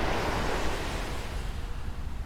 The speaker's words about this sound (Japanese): 波の音するでしょうわあ気持ちいい